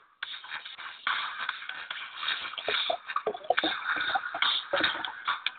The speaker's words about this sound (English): Oh, oh, there's a sound of half off cider pouring into activated energy drink.